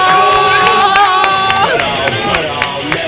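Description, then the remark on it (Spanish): A crowd bursts into loud, sustained cheering and whooping with scattered claps snapping through, steady for the whole stretch, no clear speech rising above the noise. “Apláudale perros!”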